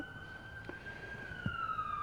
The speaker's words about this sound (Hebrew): עכשיו הנה יש לנו הפרעה של סירנה, בואו ננשום.